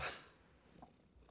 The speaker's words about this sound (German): Und Sch äh, schnurrt ins Mikrofon. Jetzt höre ich es auch wieder sehr deutlich, ja. Das Schnurren im Mikrofon.